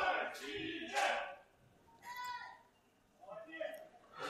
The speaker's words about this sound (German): Sie singen wieder.